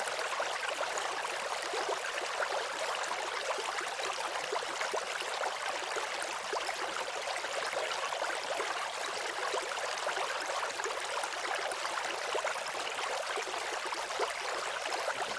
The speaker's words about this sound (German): ja, das Plätschern des Wassers. Also mich beruhigt das immer.